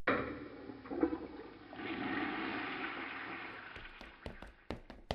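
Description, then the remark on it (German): A toilet flushes with a rushing, gurgling surge of water that swells and then drains away, followed by a few sharp clicks and knocks near the end. No one speaks. “Ich geh mal kacken.”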